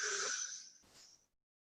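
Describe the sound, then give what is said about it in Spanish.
A single deep breath drawn in, filling the belly, airy and slightly wheezy, lasting just over a second and fading out, with no talking. “Tenemos que inspirar profundo, llenando la panza. Inspiramos,”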